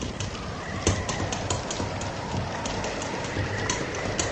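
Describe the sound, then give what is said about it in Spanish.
Hail patters against window glass during a storm with lightning, in a dense, steady rush, with sharper individual taps popping out irregularly over a constant hiss; fairly loud, with no voices. “Y, en los cristales, el repiqueteo del granizo.”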